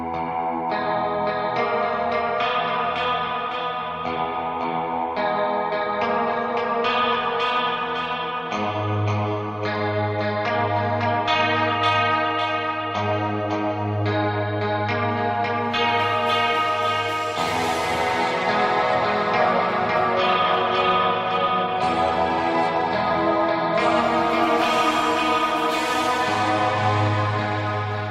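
A heavy rock song plays loud and steady throughout, thick with distorted, effect-laden guitars over a pounding low end, building denser and brighter in its second half, with no one talking.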